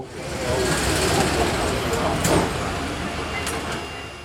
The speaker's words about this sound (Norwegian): Jeg er på tur med Å Bongino, den lille trikken. Den har vært et Rio-symbol i mer enn 100 år, og er en populær turistattraksjon. Trikketuren går fra sentrum av Rio opp til bydelen Santa Teresa, der det er en flott utsikt over deler av byen.